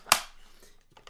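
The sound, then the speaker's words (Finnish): A sharp, loud mechanical snap as a loaded Speed Graphic press camera is opened, followed by a brief fading rattle and a couple of faint, small clicks near the end. “Tältä kuulostaa avaaminen ja sitten kun kuva otetaan se kuulostaa tältä.”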